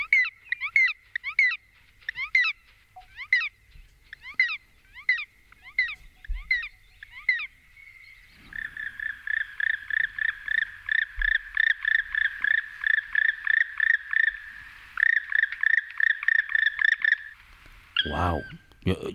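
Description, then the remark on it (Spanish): A bird gives repeated croaking, frog-like calls, first in spaced bursts, then in a fast, steady run of rapid notes, loud, with a brief sharper call at the end; nearly all the sounds this bird can make are heard. “eso lo confundiría con una rana, Amador.”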